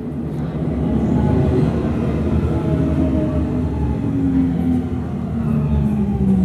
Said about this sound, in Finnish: Tuttu metron vinkuna. Kaikille varmaan helsinkiläisille tuttu ääni. Kyllä, se oli pakko saada tuohon mukaan.